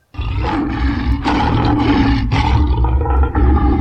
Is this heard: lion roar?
yes